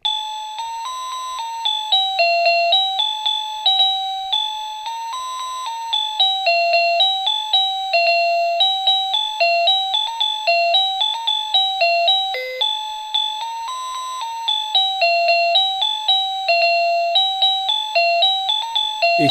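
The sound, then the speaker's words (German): An alarm clock ringtone, chosen with the rightmost button on the clock, plays a doorbell-style chime: a bright electronic melody of ding-dong notes repeating in a steady loop for nearly twenty seconds, with no one talking. “Wenn man die Modus, die Modus-Taste, die Mode-Taste ganz links, wenn man die nicht gedrückt hat, dann kann man auch schon was damit machen, nämlich ganz rechts kann man den Klingelton äh, wählen.”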